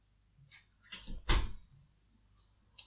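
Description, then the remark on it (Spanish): A few irregular knocks on a door, fairly muffled, with one noticeably louder thump in the middle and a final tap at the end. “¿Escuchaste que golpeaban la puerta?”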